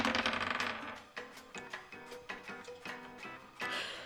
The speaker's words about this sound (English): I will roll this dice, and if I get a 19 or 20, you will find a dark shard amulet in the box.